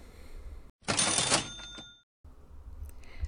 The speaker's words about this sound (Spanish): Esta enfermedad cuenta con ciertos rasgos físicos como son, venga caja registradora, Número 1.